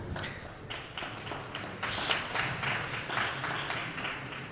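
A crowd applauds steadily at the 2021 Buchmesse book fair, many hands clapping in a dense, continuous patter at moderate volume that swells slightly midway, with no voices over it.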